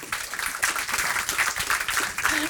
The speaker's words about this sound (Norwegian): Vi kommer tilbake til det, altså, men uh, gi en liten ekstra applaus til at du har internasjonalt gjennombrudd også.